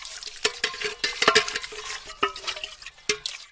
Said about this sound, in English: as the two women are doing the dishes after lunch